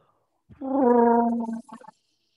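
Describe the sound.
A man does an impression of Chewbacca's Wookiee growl: one drawn-out warbling roar with a gravelly start, held about a second before breaking into a short sputtering trail.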